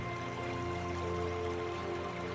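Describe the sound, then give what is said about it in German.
Steady rushing of a river flowing through a forest of tall, closely standing fir trees, a continuous even wash of water that holds the same level throughout, with no voices. “Nur der Fluss unterbricht die idyllische Waldlandschaft.”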